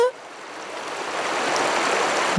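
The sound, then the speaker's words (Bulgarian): Steady rushing water from a stream, a broad hissing flow that swells slightly louder and stays constant throughout, full and without pauses. “А водата го повлече и понесе надалече”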